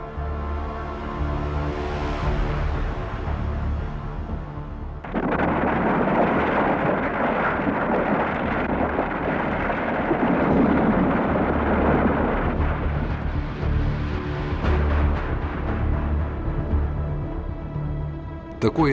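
A deep, heavy roar of a snow avalanche rushing down a mountain slope, heard from a safe distance, swelling abruptly after a few seconds and rumbling on steadily, loud and broad, like thunder that doesn't fade.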